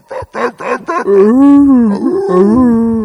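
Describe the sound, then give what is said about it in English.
A voice imitates seals barking at night in Morro Bay: four quick, loud, throaty barks followed by a long, wavering, drawn-out honk, with no other talk. “It's like um, when you live in the hood and you hear dogs barking all night, but over there you hear seals going.”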